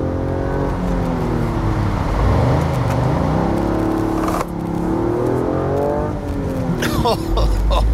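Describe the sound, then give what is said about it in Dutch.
A Toyota GR Yaris engine revs and accelerates hard, its loud, steady growl rising and falling in pitch through closely spaced gear changes, with a brief sharp clatter near the end. “Ja, de GR Yaris is dan ook wel echt een auto waarin je lekker aan de bak kunt.”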